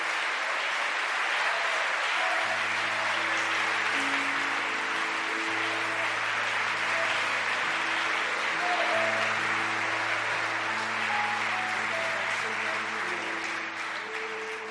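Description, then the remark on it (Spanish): An audience at a Spanish-language church service applauds for God in a dense, steady wash of clapping that fills the whole stretch, while sustained low organ or keyboard chords play underneath. “Démosle un aplauso fuerte al que vive.”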